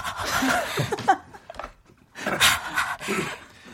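Someone breathes in an exaggerated, noisy way on request, a few loud huffing breaths with a short pause between bursts, with no words spoken.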